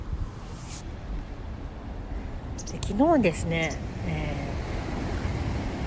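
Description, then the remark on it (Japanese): Ocean waves wash against the shore in a steady, continuous roar with some wind rumble, recorded close to the waves, while a person speaks briefly over the surf partway through. “はい波の音聞こえるかな結構もう波の近所にいるんだけど”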